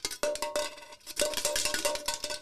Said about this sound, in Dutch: Dit komt uit het archief van reclassering. Ja, klopt. Nou zeggen wij collectebus, dan denk ik maar één ding. Hoe klinkt die